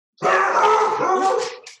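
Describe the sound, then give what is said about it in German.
A dog lets out one loud, drawn-out bark, stretched into a brief howl-like sound lasting over a second, with no talking around it. “Das ist der Hund.”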